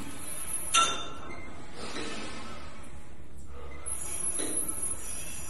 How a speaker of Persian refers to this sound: با صدای افتادن یک وزنه از روی میل هارتل